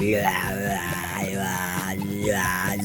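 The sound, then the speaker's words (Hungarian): A voice imitates a zombie for a funniest-zombie-voice prize, with a loud, continuous strained growl-like yell, wavering and sliding in pitch with a few swooping rises and falls, and no spoken words. “Idén külön díjazzuk a legviccesebb zombi arcot és zombi hangot is, én például egy hónapja gyakorolok.”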